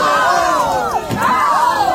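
A large crowd shouts and yells all at once, loud, many overlapping voices rising and falling in an agitated, chaotic uproar as protesters clash violently with police outside the RAI headquarters in Fuorigrotta, Naples, during a sit-in.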